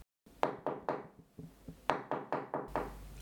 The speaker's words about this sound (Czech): Zaklepal u sousedů na dveře.